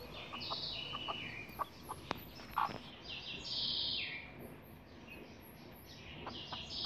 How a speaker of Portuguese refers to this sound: Esses são os pintinhos e a galinha choca no meu quintal.